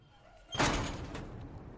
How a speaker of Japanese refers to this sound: 山の入り口に小さな平屋があった黄色い光がその平屋の中にあった表には何もそれらしき文字はなかったけれど周りに建物はなかったからおそらくここだろう僕は一つ息をして入り口のドアを開けた